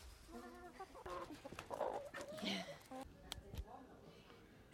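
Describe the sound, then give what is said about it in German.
Around 30 hens cluck repeatedly in short, choppy bursts, several birds overlapping, as they peck at dandelion being fed to them, with people's voices murmuring faintly in the background. “Genau, Hennen, die Schweine haben wir schon gesehen.”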